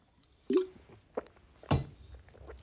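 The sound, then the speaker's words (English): A swig of water being drunk: a few wet gulping and swallowing sounds, spaced irregularly, with one low throaty gulp and soft clicks between, no voices. “Sorry, I had to take a swig of water there.”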